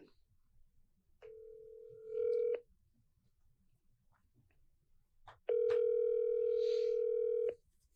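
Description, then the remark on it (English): A telephone dial tone hums steadily in two stretches while calling a screen printing business, first a short burst and then a louder, longer one, with faint clicks in between and no one talking. “calling Upstate Merch.”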